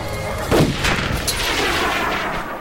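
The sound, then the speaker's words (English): A sharp gunshot cracks out as an air tank is shot, followed almost at once by a loud, hissing burst as the compressed air tank ruptures and rips free of a fence, a broad roaring blast that sustains briefly before fading. “The air tank went off like a rocket, ripping free of the fence”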